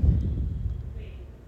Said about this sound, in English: Sorry about the background noise. My roommate is talking in her room,